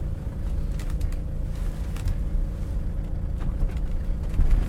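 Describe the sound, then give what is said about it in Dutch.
A large Mercedes car engine rumbles steadily, a low droning hum with faint clicks and creaks, growing slightly louder near the end as the car arrives and parks beside the 15th-century Sint-Pauluskapel chapel. No one speaks. “Een grote Mercedes komt ook net aanrijden. Die parkeert naast de kapel.”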